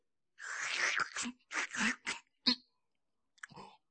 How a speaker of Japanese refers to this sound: さーて年越しそば食べますかいただきまーす